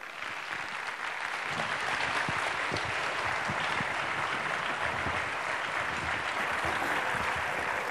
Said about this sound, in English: Let's please give our panel a round of applause.